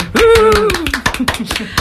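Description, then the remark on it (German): A quick burst of hand clapping standing in for a missing fanfare, a dozen or so sharp claps in a brisk, slightly uneven rhythm, with a drawn-out vocal cheer sliding downward over the first half. “Äh, den haben wir nicht hier rechtzeitig so Klatscher.”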